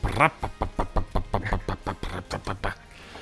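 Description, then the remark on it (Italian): A voice imitates a small single-cylinder car engine with a quick, steady string of about a dozen throaty putt-putt pulses, fairly loud, then trails off. “Mi ricordo più il rumore. Era, era, un, era un monocilindrico forse addirittura.”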